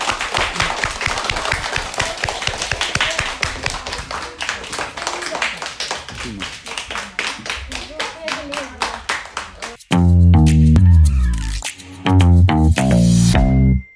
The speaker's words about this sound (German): Ach, wollt ihr einen Applaus? Okay. Ja, dann muss ich aber auch für euch applaudieren.